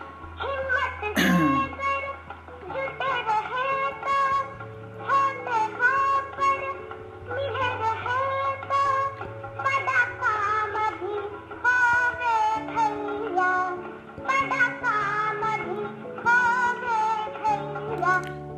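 A recorded song plays throughout, with a melodic voice singing over steady, stepping bass notes and layered accompaniment at a fairly even, full loudness, with no speech over it.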